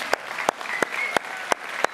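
Steady rhythmic clapping, six sharp claps about a third of a second apart, over a soft murmuring background, like an audience clapping in unison; a Ruhrkirche church audience applauding themselves and the Enneptaler.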